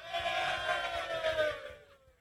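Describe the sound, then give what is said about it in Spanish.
A studio audience shouts together in answer to a poll, those who believe statehood will not arrive in five years, in a loud, sustained burst of voices that lasts nearly two seconds before fading out quickly. “Ahora griten los que creen que no va a llegar en cinco años.”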